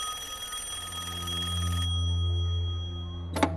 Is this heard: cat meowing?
no